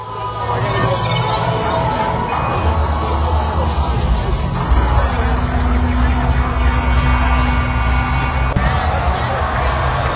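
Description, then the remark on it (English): A festival crowd of close to 100,000 people roars and cheers at a concert in a dense, continuous wash of noise, loud from start to finish, with low steady music humming underneath and scattered voices mixed in. “Crowd's starting to get into it.”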